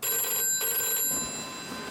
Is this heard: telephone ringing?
yes